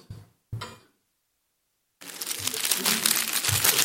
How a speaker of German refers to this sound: kann man besser hören vielleicht als sehen. Was könnte das sein? Ja, genau, Pergament. Ja, also ihr sagt natürlich, das ist eigentlich Backpapier.